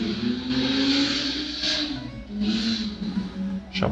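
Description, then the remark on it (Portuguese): A motorbike engine drones steadily, its pitch rising and falling as it revs and passes by outdoors, with no voices over it. “Passou uma moto aqui.”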